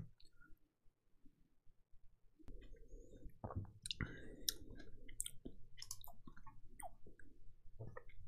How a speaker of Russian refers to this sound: Я жую, потому что тут семечки личи.